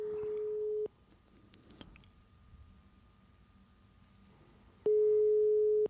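A steady, loud telephone ringback tone plays a one-second burst while calling Morten Ramm, falls quiet for about four seconds with only faint background noise, then sounds again, the familiar pulse of a call waiting to connect.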